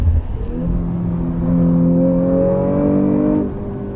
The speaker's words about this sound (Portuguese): Mas com o V6 biturbo 2.9 de 450 cavalos, ele ainda impressiona demais. Acelera forte e o ronco do motor. O barulho do V6 impressiona muito.